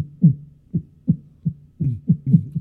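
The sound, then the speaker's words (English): A heartbeat thumps steadily and fast, low muffled beats landing in quick lub-dub pairs, fairly loud with no voices over it. “That means your heartbeat has a lot of soul.”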